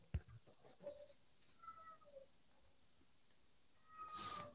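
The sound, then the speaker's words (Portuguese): A cat meows a few times in short, high, tonal calls, ending with a longer, louder meow; soft clicks and shuffling sit in the background, with no talking. “Tá, porque o, o miar dele até é fofinho, ele não parece assim um diabo.”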